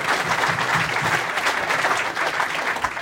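Steady applause from a crowd at an event, just before a half-hour interval: a dense wash of many hands clapping at once, sustained and fairly loud throughout without any voices standing out.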